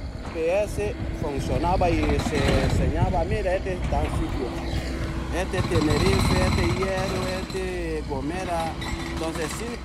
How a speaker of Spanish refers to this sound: este es el ruido de esas máquinas excavadoras de las que mm,